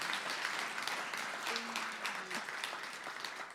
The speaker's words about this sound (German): Können wir ihm mal einen Applaus geben? Echt, vielen, vielen Dank, ja. Echt stark.